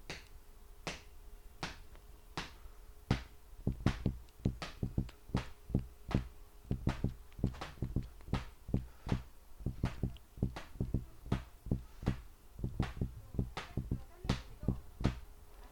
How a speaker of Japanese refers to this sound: で逆にですね足でリズムを取りながら足で1234と刻みながら指でリズムを出します